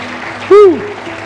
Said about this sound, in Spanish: De un aplauso al Señor.